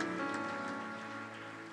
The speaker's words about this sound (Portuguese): Dá um aplauso forte ao Senhor. Aleluia. Glória a Deus.